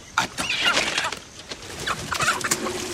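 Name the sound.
rooster clucking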